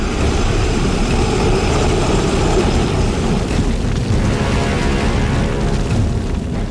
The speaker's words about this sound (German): Der Drache brüllte und öffnete den Mund weit genug, um ein Gebiss mit messerscharfen langen Zähnen zu zeigen und blies eine riesige, todbringende Feuerfontäne aus.